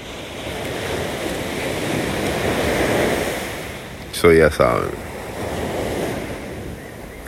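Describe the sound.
Steady roar of sea waves washing onto shore, a broad continuous rushing with gentle swells in loudness, briefly interrupted around the fourth second by a short spoken phrase.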